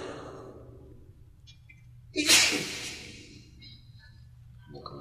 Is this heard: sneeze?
yes